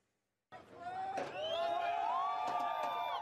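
A crowd of many residents cheers and shouts as Wagner group forces leave Rostov, after a brief silence, a dense wash of many voices with whoops and high whistles rising above it, holding steady and loud throughout.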